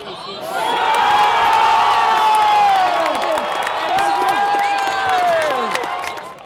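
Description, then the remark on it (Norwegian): A large football crowd erupts in sustained cheering, loud and continuous for several seconds, with overlapping shouts and whoops rising and falling before easing off: Swedish fans cheering a Swedish goal against Ukraine just before half-time. “Like før pause var det likevel klart for svensk jubel også.”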